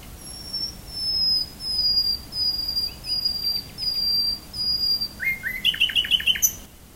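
nightingale singing

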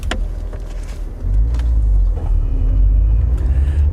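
car engine running

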